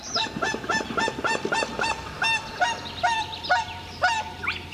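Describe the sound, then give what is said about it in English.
Loud, repeated honking whoops from whooper swans in rapid bursts, with fainter calls of a spotted crake and a thin buzzy note from a common reed warbler mixed in behind, recorded at a rewilding site; no talking. “we're listening to one of them with the calls of the spotted crake, the common reed warbler, and the whooper swan.”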